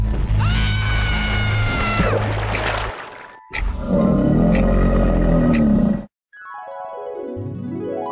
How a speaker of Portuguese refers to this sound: Então todos ouviram o um grito, mas como estavam muito ocupados, eles não viram o Smith se aproximar.